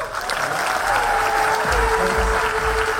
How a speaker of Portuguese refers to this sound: Uma empresa dessa merece uma forte salva de palmas.